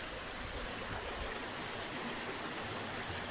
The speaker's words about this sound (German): wir bleiben mal direkt hier ne, mit dem entspannenden Wa Regenrauschen, äh, Wasserrauschen vom Bach.